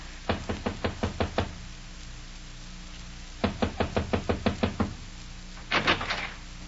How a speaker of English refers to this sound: This is his room, Mom. Well, knock on the door,